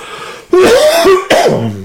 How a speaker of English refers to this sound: I hope I could get through this show without coughing a whole lot. It's been a little bit of a struggle for me, so for that, I do apologize.